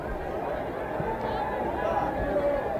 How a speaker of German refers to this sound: Jetzt kommt der Wagen des Dalai Lama herein auf das große Feld. Sie hören die Aufregung in den Menschen.